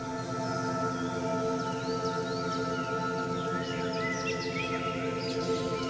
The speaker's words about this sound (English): And so that bird song is from Dan's recording.